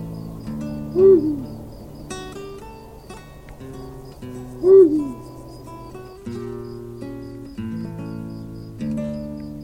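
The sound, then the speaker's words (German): An eagle owl gives two deep, loud hoots, spaced several seconds apart, over a steady background of layered humming tones. “Das war der Uhu.”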